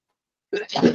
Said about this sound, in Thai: โอ้ยผมน่าจะป่วยแล้วแหละ วันนี้จามมาสองสามทีแล้ว โทษทีครับ